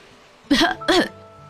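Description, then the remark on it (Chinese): A voice acts out a cough by the scallop character in a children's story: two short, voiced bursts in quick succession, each with a rising-then-falling pitch, fairly loud against a quiet background. “扇贝咳嗽了一声，说：”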